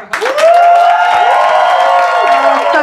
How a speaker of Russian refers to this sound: Так, давайте еще поприветствуем женщину-математика. Да. Вообще-то я вас вначале пересчитала, и по моим подсчетам должно быть громче, окей? Это что за 48,3 хлопка? Давайте еще раз нормально